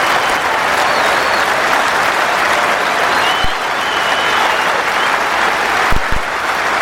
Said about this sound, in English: Uh, Williamson First time at Lords, 100 on his first Test match here and getting a great applause. It's been a fantastic innings.